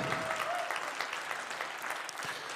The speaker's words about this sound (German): Wie findet ihr die? Ist doch richtig cool, oder? Gebt ihr nochmal Applaus.